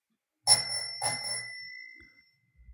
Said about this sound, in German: Lass mal das Klingeln ertönen